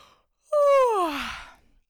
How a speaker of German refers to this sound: Aber solange du zu Hause bist, gähne ruhig und auch gerne mit der Stimme. Also es klingt dann so.